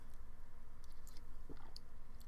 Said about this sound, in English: I'm gonna take a sip of water.